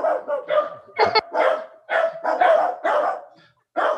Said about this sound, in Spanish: ¿Quién, tiene un perro ladrando? Yo tengo un perro ladrando que trae un pinche desmadre.